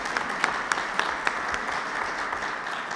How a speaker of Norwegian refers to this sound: 188 landskamper og 58 mål. Stemmer. Det er verdt en applaus.